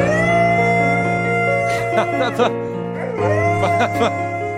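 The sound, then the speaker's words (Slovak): A dog howls in a long, wavering, tuneful voice, its pitch sliding up and down almost like singing, loud for several seconds. “Počkaj, toto je pes. Toto je zase pes, ktorý sa identifikuje ako spevák.”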